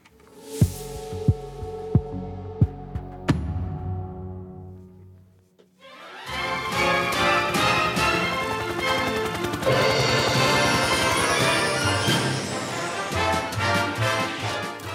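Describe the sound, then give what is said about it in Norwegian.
The theme tune of the TV reality series Swedish Hollywood Wives (svenske Hollywood-fruer): a slow, throbbing pulse of deep beats over held tones fades briefly, then loud, full instrumental music bursts in with bright, layered melody and steady rhythm. “Ja, det vi hører her, er kjenningsmelodien til TV-realityserien svenske Hollywood-fruer.”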